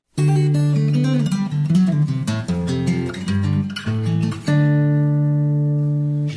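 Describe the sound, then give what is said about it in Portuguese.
A gentle instrumental intro to a classic Christian worship song played on the program Sons do Coração, with warm sustained keyboard chords that shift through a few changes before settling into a long held chord, steady and moderately loud, with no singing. “Ouviremos um clássico da música cristã no programa Sons do Coração,”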